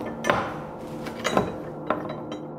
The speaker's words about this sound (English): And these are the actual keys that went to the jail cell where they were locked up.